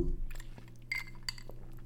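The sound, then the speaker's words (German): Someone sips a water spritzer (Wasserschorle) from a glass: a few light, sharp glassy clinks and soft handling sounds at an uneven pace over a low steady hum, with no one talking. “Mal einen Schluck hier von meiner Wasserschorle nehmen.”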